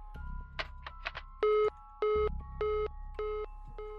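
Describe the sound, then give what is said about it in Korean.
A phone call hangs up as a friend ends the call: a few quick electronic chirps, then a steady run of five evenly spaced beeps, clear with no voices. “친구는 건성으로 알았다고 대답하고 전화를 끊었다.”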